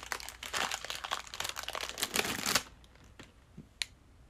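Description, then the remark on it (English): A Met-Rx cookie dough protein bar wrapper crinkles in a dense, steady rustle for a couple of seconds, then stops, leaving a few scattered crackles and sharp snaps as the bar, kept in the heat too long, is broken apart. No one speaks. “Yeah, break it apart.”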